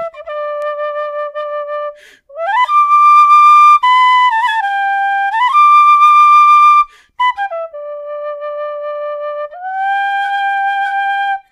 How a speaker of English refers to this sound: Well, you guys want to hear a little Irish flute or what?